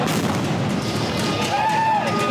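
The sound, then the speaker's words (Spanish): Firecrackers and molotov bombs thrown by attackers at a truck at a Mexican state institution burst in sharp, scattered pops over a dense, constant roar of chaotic noise, with people shouting in the background and a brief rising-and-falling whistle-like tone. “Le lanzaron petardos y bombas molotov.”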